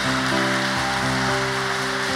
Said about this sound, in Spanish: Y si tú lo crees, dale un fuerte aplauso al Señor Jesús. Fuerte ese aplauso para Él, fuerte.